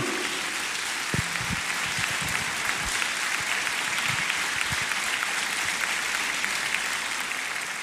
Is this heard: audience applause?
yes